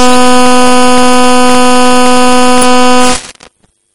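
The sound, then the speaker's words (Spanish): A single loud, steady horn blast holds one buzzy, harmonic-rich tone for about three seconds, then cuts off abruptly into near silence. No one speaks. “Ese Pito”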